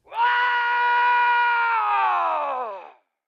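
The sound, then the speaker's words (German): A loud, sustained human scream lasting nearly three seconds, steady and piercing before sliding down in pitch as it fades out, heard alone without any talking. “Dann schreien Sie doch nicht so!”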